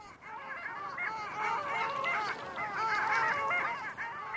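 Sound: long-tailed duck calls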